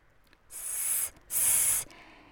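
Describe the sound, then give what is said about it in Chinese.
Two drawn-out hisses, each about half a second, separated by a brief pause. They sound sharp and airy, like a voice imitating a snake's hiss, as a big snake in a children's story hisses while speaking to a sheep, with no talking. “好，那这条蛇呢，爬呀爬，来到小雪绵羊小雪的面前哦，嘶嘶叫的问他说。”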